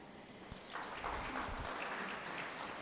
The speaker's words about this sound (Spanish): Bien, le damos un aplauso a la mamá.